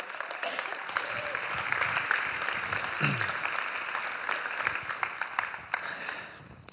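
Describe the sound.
A crowd applauds steadily for several seconds, a dense, continuous patter of many hands clapping at moderate loudness, with a brief voice audible beneath it, as they welcome a speaker up to the front.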